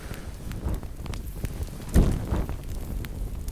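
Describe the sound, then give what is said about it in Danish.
A campfire that is about to go out crackles with scattered sharp pops and snaps over a low, breathy rush of air, swelling briefly near the middle as someone blows on the embers to give the fire more air. “Måske har du nogle gange set de voksne sidde og puste ind i brændeovnen eller på gløderne på bålet.”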